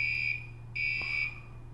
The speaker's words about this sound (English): you're right it's a fire alarm